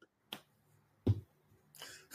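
A few sharp hand claps, about three, spaced unevenly with quiet gaps between them; crisp, bright smacks with a fuller, louder one in the middle and no talking.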